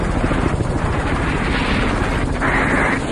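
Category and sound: vehicle, helicopter flying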